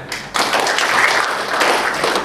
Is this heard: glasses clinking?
no